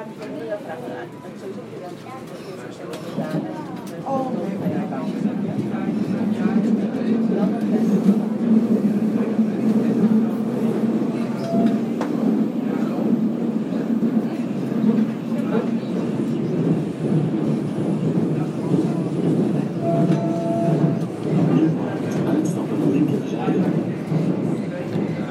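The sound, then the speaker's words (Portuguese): An arriving train rolls steadily along the tracks, a continuous low rumble with faint rattling that swells slightly after the first few seconds, while people talk over the noise. “Muito bem, nosso trem está chegando.”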